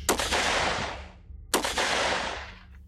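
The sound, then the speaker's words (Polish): Two loud, sharp volleys of gunfire from a firing squad executing a condemned man, about a second and a half apart, each cracking out together and trailing off in a long rolling echo. No one speaks. “Tuż przed oddaniem strzałów próbował instynktownie uniknąć kul.”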